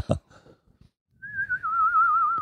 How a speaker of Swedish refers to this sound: Eh, alltså det är som att det är från en vissling från andra sidan. Ah. Det kommer liksom en, en spökvissling. Spökpiano, spökorgel.